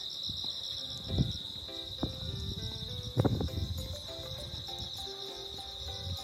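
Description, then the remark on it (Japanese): Steady high-pitched ringing of bell crickets (suzumushi) chirping continuously in the background shortly before 5 a.m. on a dark, overcast morning in an area with many rice paddies, with soft indistinct voices and low room sounds underneath. “ただまあ相変わらずスズムシの声は非常に元気で元気にいつも通りリンリンリンリン泣いていますけど聞こえますかね多分バックで聞こえますよね”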